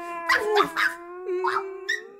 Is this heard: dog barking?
yes